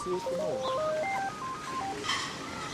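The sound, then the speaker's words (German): A mobile phone rings with a melodic electronic ringtone, a quick run of bright beeping notes stepping up and down, clear over faint background noise. “Dauernd begegnet einem jemand, der noch schnell etwas Wichtiges muss melden muss oder es läutet das Handy.”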